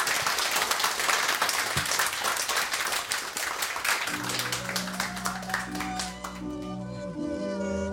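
A burst of dense, steady applause from many hands, fairly loud, with a bright musical jingle rising underneath about halfway through as the clapping continues.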